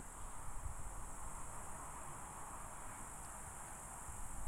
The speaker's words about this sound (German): Wahrscheinlich hört man mehr die Autobahn ja. als die Grillen, tippe ich.